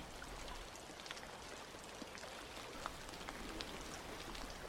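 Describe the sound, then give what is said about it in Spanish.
Steady rain falls at a distance, a soft continuous hiss with scattered faint drop ticks, quiet and even throughout with no voices. “Puedes escuchar a lo lejos la lluvia.”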